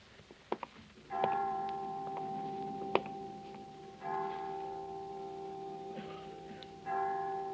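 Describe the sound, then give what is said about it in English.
The chimes of a children's home strike five o'clock with slow, evenly spaced bell tones, each stroke ringing out and lingering before the next. A few faint ticks come first, and no one speaks. “Well, five o'clock. I didn't know the children's home had chimes.”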